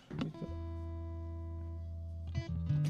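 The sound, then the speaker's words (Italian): A dry electric guitar is struck during a sound check with no reverb and left to ring, its chord sustaining steadily for about two seconds before fresh strums break in near the end; clean-sounding, no echo. “E, niente, se vuoi fare un attimo attimo un okay, check alla chitarra.”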